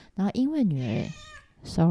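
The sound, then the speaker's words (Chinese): The speaker's own house cat lets out a long, drawn-out meow that rises and falls in pitch, wedged between a man's brief bits of speech. “我家的猫”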